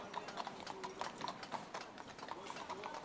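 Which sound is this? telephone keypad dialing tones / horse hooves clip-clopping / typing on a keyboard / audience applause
horse hooves clip-clopping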